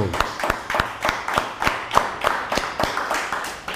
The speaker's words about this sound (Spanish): Un fuerte aplauso.